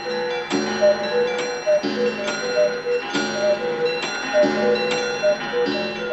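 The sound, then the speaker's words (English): Many clocks in an inventor's home chime together at once, overlapping bell-like strikes ringing out every half second or so with long sustained tones layering into a loud, continuous shimmer. No voices are heard. “A herd of clocks all chime at once around them to herald the arrival of their host, Mr.”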